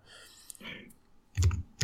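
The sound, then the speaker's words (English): Someone types on a computer keyboard while looking something up online: fairly loud quick bursts of clicks, with a couple of heavier thumping keystrokes near the end and a soft breathy sound early on. “Yeah, you hear me typing.”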